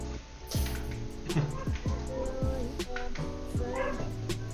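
A dog yelps and barks several times in quick succession, its cries sliding downward in pitch, set against a steady backdrop of music playing throughout.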